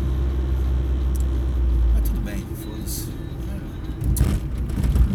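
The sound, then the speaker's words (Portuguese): Steady low engine rumble and road noise fill the cabin of a moving car heading home through heavy traffic, with traffic sounds outside and a person talking briefly over it. “trânsito mesmo é esse horário.”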